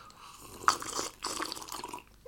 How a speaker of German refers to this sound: Direkt erstmal einen Schluck Wasser nehmen. Einmal einen Schluck Wasser, weil.